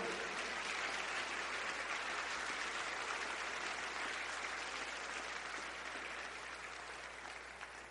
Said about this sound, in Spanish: ¿Cuántos le pueden dar un aplauso al Señor?